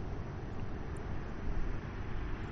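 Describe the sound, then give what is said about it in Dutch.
A large boat passes by, its engine a steady low rumble with a broad wash of noise that swells slightly midway. No voices are heard. “komt eventjes een bootje voorbij.”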